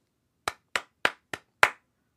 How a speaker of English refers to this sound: Here's how you play Clap It Back. I'll say some words, and your job is to clap back the rhythm of those words using your clapping hands. So, for example, if I say, It's a starry night, you would go.